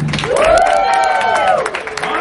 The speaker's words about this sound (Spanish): Así que aplausos para el tridente. Ok, aplausos para Mera. Ustedes van a medir quién está cogiendo más aplausos